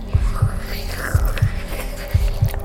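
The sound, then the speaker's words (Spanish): The walls of a living room throb with a deep, heartbeat-like pulse in paired thumps, three double beats about a second apart, steady over a low hum and faint hiss. “Como un latido.”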